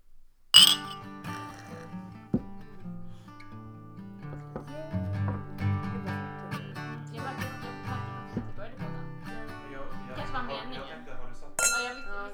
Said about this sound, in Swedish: Men eh, vi kör en avslutande skål på det.